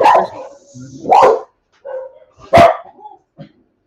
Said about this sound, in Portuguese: Os meus cachorros têm, começaram uma uma discussão de relação com os da frente. É, então, tudo bem, a gente está acostumado aqui.